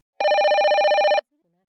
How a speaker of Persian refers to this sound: ببخشید من این تلفن رو جواب میدم